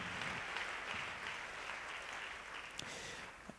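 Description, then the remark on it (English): A church audience in West Palm Beach applauds together, a dense, steady wash of many hands clapping at even loudness throughout, with a few sharper individual claps standing out near the end. “Give yourselves a hand clap today.”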